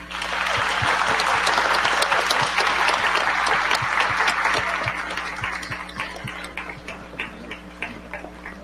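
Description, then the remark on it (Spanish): A crowd at a religious service applauds for the Virgin Mary with dense, sustained clapping for about five seconds, then it thins into scattered individual claps as it fades out. A low steady hum runs underneath. “Vamos a darle un aplauso a la Virgen.”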